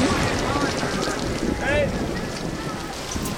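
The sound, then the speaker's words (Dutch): Strong wind of a severe storm roars in a steady, dense rush with no letup, buffeting and blowing trees over, while a brief voice briefly surfaces midway through the gusts. “Oh, dit is een gemene storm, dit, hè? Dit is een hele gemene storm.”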